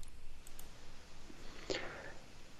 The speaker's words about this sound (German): Äh, ich pass, ich klicke einfach drauf.